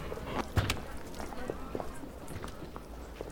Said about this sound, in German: Wen kennst du denn bitte, der so eine Kutsche fährt? Vier Pferde?